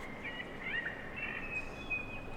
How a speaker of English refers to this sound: right next door between George and Pitt Streets is the lovely Angel Place, where you can hear the calls of Sydney's forgotten birds, emanating from an installation of empty bird cages above.